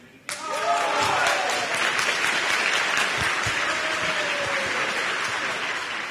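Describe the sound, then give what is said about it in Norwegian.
Members at a meeting burst into sustained applause after voting on a motion of no confidence in the sitting president, with a few whoops and cheering voices rising above the dense clapping. “Det gjorde de, og nok en gang ble det jubel.”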